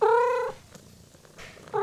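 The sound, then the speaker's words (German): A tomcat gives a loud, tonal purring call for about half a second, then falls quiet before starting another at the very end. “Jetzt habe ich meinen ersten Kater.”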